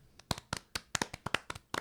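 Quick, uneven hand claps, about ten sharp slaps in under two seconds, fairly loud, with no voices.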